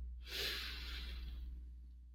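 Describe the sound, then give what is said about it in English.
A single deep, drawn-out inhale through the nose, fairly loud, rising quickly then tapering off over about two seconds with no talking, demonstrating physiological sighing, a breathing technique. “So, physiological sighing is a deep inhale”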